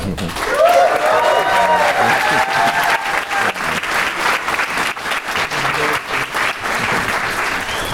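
Loud, sustained applause from an audience, dense rapid clapping filling the full eight seconds with cheers and whoops rising over it near the start.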